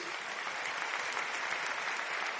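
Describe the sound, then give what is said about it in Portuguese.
An audience applauds to the name of Jesus, a steady, dense wash of clapping from many hands that holds at an even level for the whole stretch, with no one speaking over it. “Você pode aplaudir ao nome de Jesus.”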